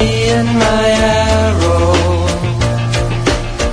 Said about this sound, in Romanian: Și piesa, există și o piesă dedicată câinelui